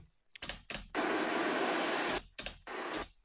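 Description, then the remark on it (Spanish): A strong rushing gust of wind roars up loud, holding steady for about a second before dropping away, with shorter whooshing bursts just before and after it. “pero entonces empieza medio un, un ventarrón.”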